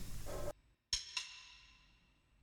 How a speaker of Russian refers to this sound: Это звук барабанных палочек, которыми я стучу в микрофон. Э, при этом я не помню, как это вообще произошло, но в воздухе повисла, повисла идея, а давай не будем делать это ритмично. И мы решили не делать это ритмично,